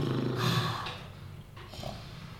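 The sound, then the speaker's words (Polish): Heavy, raspy panting breaths, two or three rough exhalations in a row, moderately loud, with no talking over them. “Słyszycie dyszenie.”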